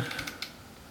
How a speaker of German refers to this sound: ich klicke gerade mal auf der Website Urban 2015.